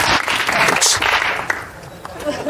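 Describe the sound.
A brief, thin patter of applause from a small audience, fairly steady and then tapering slightly toward the end, with some murmured voices mixed in.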